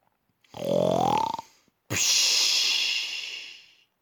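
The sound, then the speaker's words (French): A voice imitates one loud snore of a wolf falling asleep: a rough, rising voiced snort on the in-breath, a short pause, then a long hissing, airy exhale that slowly fades. “Le ventre gros, le ventre lourd, le loup s'endort et se met à ronfler si fort que la maison tremble.”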